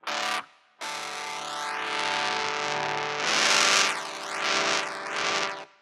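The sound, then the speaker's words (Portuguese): A distorted electric guitar shaped by a talkbox, the player's mouth movements shaping the tone: a short chord, a brief pause, then a loud sustained chord whose tone sweeps through vowel-like 'wah-ow' shapes several times. No talking. “E eu vi um vídeo do Directbox, né? Do Talkbox.”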